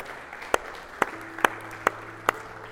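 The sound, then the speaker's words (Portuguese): An audience at a worship service claps in unison to applaud the Lord Jesus, five sharp claps at a steady, even beat against a quiet room hum, with no voices over them. “Você pode aplaudir o Senhor Jesus por isso, por esse amor?”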